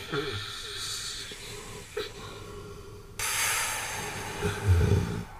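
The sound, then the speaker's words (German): A robot snores: a raspy, wheezing snore rumbles along with a breathy hiss, growing louder and harsher halfway through and ending in a brief snort-like burst. “Ich treffe den einzigen Roboter, der Gefühle hat. Und was tut der? Der schnarcht.”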